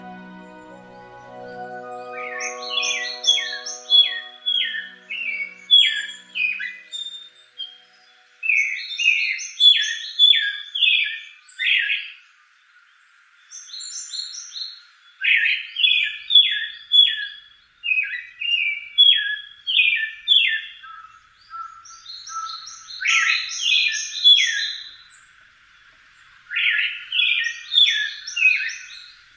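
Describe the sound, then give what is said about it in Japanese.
An eyebrowed thrush (mamichajinai) sings from a dense wood in a former Edo-period estate garden inside Tokyo's Yamanote Line loop, a series of short, bright warbling phrases separated by brief pauses, repeated about seven times, with a brief low tone at the very start. “白鳥関と名付けられた鬱蒼と茂った森の中から聞き慣れないさえずりが聞こえてきましたマミ茶地内の鳴き声です”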